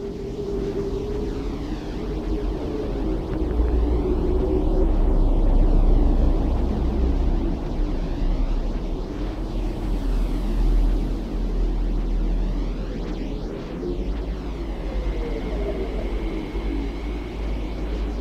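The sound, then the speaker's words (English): Earth's radio emissions turned into sound: a steady low hum beneath a wash of hissing static, with faint gliding whistles drifting through and a thin tone emerging near the end. No voices. “Out here, removed from our powerful radio bursts, we can hear the voice of our planet. The comforting hum and the occasional gentle whistle set against a sort of cosmic white noise.”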